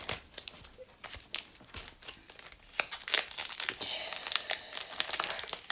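A foil card pack wrapper is crinkled and torn open, a run of sharp, bright crackles and rips with quick irregular bursts that grow busier and louder toward the end.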